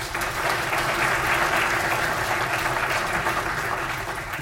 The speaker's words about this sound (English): And uh, she deserves a round of applause because.